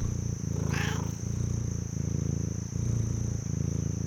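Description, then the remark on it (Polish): A black-and-white cat named Gacenty purrs in a low, steady rumble that swells and pauses in regular breathing cycles, with a constant thin high-pitched whine in the background. “Mrauczy wtedy, gdy jednocześnie czy i mruczy. W ten sposób tenże niesamowity czarno-biały kot wyraża swoją wdzięczność dla bliskich mu osób.”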